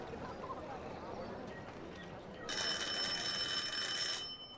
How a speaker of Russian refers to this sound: Раздается звонок в передней.